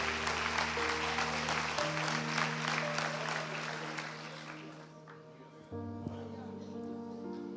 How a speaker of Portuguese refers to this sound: Você que pode, aplauda bem forte a Jesus.